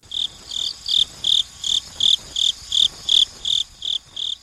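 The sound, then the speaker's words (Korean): A cricket chirps in a steady, even rhythm, about a dozen bright, high pulses in quick succession, clear against a quiet background with no voices. “네, 이 소리는 우리 뚜리뚜리 귀뚜라미 울음소리였고요.”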